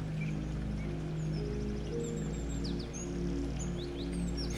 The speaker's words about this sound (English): Listen to those birds. Birds wake up and sing and have joy every day.